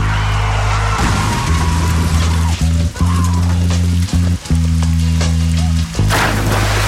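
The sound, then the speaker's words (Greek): Heavy rain pours down in a dense, steady hiss, with a loud low droning hum running underneath that briefly cuts out a few times. “Τι κάνει, πέφτουν τα νερά, δεν ξέρω τι συμβαίνει.”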